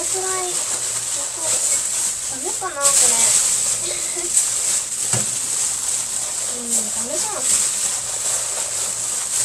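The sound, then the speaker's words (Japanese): Rice for the evening meal being washed by hand, with a continuous wet, gritty rustling and swishing throughout, while a voice speaks briefly over it now and then. “ただちょっとあの、私今日の夜ご飯分のご飯をセットするのを忘れていたのでちょっと米を研ぎながらちょっと喋ってみようかなと思ってるんですけど”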